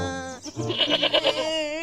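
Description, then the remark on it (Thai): A goat named Boonsong bleats loudly in one long, wavering call that pulses rapidly through the middle before trailing off, with no talking. “นั่นร้องทั้งคนทั้งแพะเลยทีนี้”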